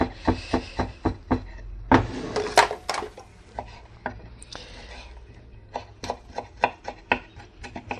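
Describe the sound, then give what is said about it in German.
A knife chops steadily on a cutting board, dicing halved tomatoes into small strips and then small cubes with quick, sharp taps in bursts, pausing briefly mid-way with some rustling and a clatter before the rhythmic chopping resumes. “Schneide die dann nochmal in kleine Streifen und dann wieder in kleine Würfel.”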